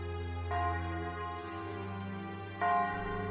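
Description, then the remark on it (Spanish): Church bells ring from a bell tower in the afternoon, two resonant strikes about two seconds apart, each leaving a long, humming tone that hangs in the air between peals. “todas las tardes el cielo será azul y plácido y tocarán, como esta tarde están tocando, las campanas del campanario.”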